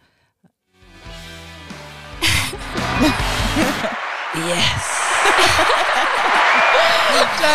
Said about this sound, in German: also ein kleiner Applaus für die Mädels, weil ich das wirklich bewundernswert finde.